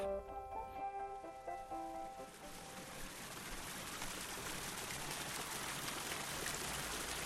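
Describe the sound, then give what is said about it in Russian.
Water jets spout from holes in the lids of several hundred clay jars used as fountains, 365 Korean condiment jars from about 30 cm to one metre across, splashing and rushing steadily in a dense continuous spatter that builds after a brief moment of faint tonal voices at the start. “из которых, как из фонтана, бьют струи воды.”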